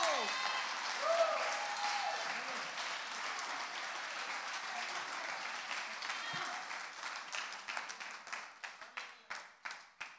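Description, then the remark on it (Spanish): An audience bursts into sustained applause, a dense wash of many hands clapping, with a few voices calling out early; the clapping thins toward the end into scattered, distinct claps. “Si tú lo crees conmigo, dale un fuerte aplauso a Cristo.”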